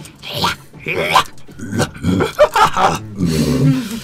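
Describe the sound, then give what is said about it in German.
A person makes guttural, snarling growls and grunts, imitating a hyena-like gnoll leader communicating in Gnoll with other gnolls, in a rough, continuous string of loud vocal bursts lasting about six seconds. “Verneigen sich noch einmal vor ihrem Herrn und Meister, der gutturale laut von sich gibt und anscheinend jetzt auf Gnoll mit ihnen kommuniziert.”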